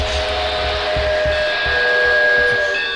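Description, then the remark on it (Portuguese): A steam train rolls over the railway bridge between Pedro Osório (Olimpo) and Cerrito with a steady hiss and sustained whistle-like tones, while heavy wheels thump in a regular rhythm about twice a second. “Passando sobre a ponte ferroviária entre Olimpo e Cerrito.”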